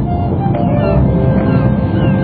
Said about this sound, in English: What is it? That's the sound of the ocean.